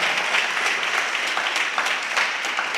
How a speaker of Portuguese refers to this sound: Glória a Deus. Dá um aplauso a Jesus aí. Pode sentar.